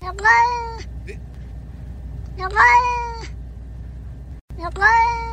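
A cat gives three drawn-out, wavering meows at regular intervals, each rising and falling in pitch so they sound almost like spoken words, said to resemble Japanese words, clear over a low steady background hum.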